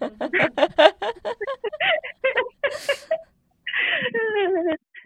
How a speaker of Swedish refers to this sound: Nu, nu skriker min bebis.